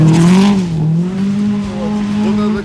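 An old Subaru rally car driven by Artem Uglov roars loudly, a steady high-revving drone that dips in pitch briefly as the car speeds past at a fast pace, with no voices over it.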